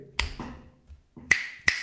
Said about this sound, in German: Der macht immer, der Schnipp, der macht immer hier so den Schnipser mit dem Finger, wenn er irgendwo ein Birdie macht oder wenn er einen Putt einlocht.